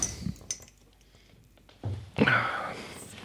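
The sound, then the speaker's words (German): Glassy clinks and a short knock, a brief pause, then a beer bottle opening followed by a sustained fizzy rush of beer being poured into a clear glass, fairly loud. “Ich glaube, die, die, die tue ich auch mal in Glas, in durchsichtiges Glas, damit ich mal gucken kann, wie die aussieht.”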